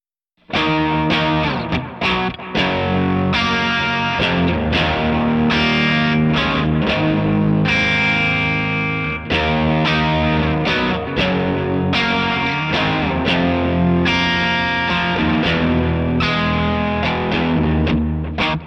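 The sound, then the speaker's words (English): An electric guitar played through an overdrive and echo pedal plays dense, sustained chords and riffs with an echoing, reverb-laden tone, loud, continuing steadily throughout with no voices. “Let me just kick in a little bit of the uh, little bit of the overdrive.”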